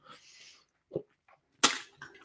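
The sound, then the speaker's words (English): Someone takes a quick drink of water: a soft swallow, then a sharp breathy exhale and a few faint rustles, with no talking. “The sixth one, if you excuse me whilst I had a drink of water, was setting towards goals.”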